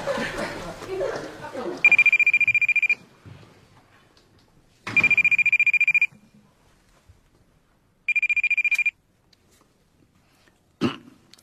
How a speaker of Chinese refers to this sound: 哎，你哎，你接电话呀？